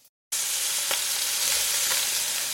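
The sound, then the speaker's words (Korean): After a brief moment of silence, pork belly sizzles loudly on a grill, a steady hiss of frying fat dotted with occasional sharp pops and crackles, with no voices. “다른 외식 문화 캠페인 내 삼겹살 내가 구웁시다.”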